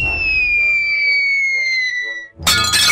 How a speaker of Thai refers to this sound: หม้อใบนั้นจึงแตกออก